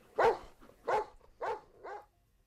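A dog barks four times in a steady rhythm, each bark short, the last one a little softer, with no voices around.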